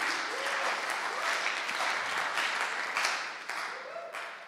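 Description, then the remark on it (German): Sustained audience applause for the people watching live online, many hands clapping in a dense, steady patter, loud throughout and tapering slightly near the end, with faint voices mixed in. “Einen fetten Applaus an die.”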